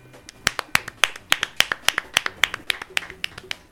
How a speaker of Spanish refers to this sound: Aplausos.